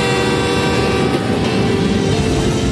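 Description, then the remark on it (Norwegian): An approaching train roars steadily for about three seconds, a heavy low rumble with a sustained, droning horn tone layered on top, and no voices. “Mister, there's a train coming!”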